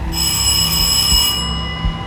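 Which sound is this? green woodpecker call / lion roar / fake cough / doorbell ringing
doorbell ringing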